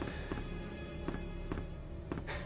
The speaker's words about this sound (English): I love the foot sound effects. Yes. Like walking. They got the music down, sound effects down.